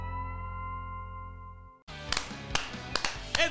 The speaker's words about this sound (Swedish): Ja, alltså, du klappar ju fan i takt också.